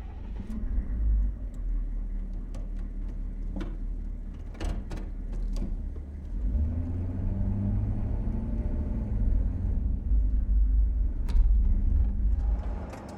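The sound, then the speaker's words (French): The engine of a vehicle running on alternative energies and carrying about ten people turns over and settles into a steady, deep rumble, with a few sharp clunks and knocks early on before the low engine drone swells and carries on without voices. “Une fois tout le monde à bord, Greystock lança le moteur.”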